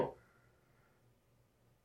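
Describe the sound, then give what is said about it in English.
A single muffled hammer blow from the refurbishment of the apartment next door strikes at the very start, sounding like it comes through a wall, then fades into a quiet, low background hum. “If you stick with this, you'll hear the hammering again in minute 11, which is the last one I recorded yesterday. Apartment next door is being refurbished.”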